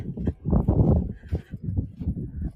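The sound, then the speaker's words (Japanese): A low, roaring rumble of ocean waves on a beach near the tip of the Boso Peninsula, Japan, on a windy day, surging and easing in uneven pulses, steady, with no voices over it. “このゴーっていう音は風ではなくて波の音ですね。今、少し聞こえると思うんですけれども。”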